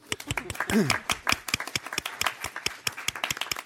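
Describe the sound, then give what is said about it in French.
An audience breaks into applause for the panelists of a panel discussion, dense overlapping hand claps filling the room for a few seconds, with a brief voice rising over the clapping near the start. “et on peut déjà applaudir nos panélistes pour chauffer la salle.”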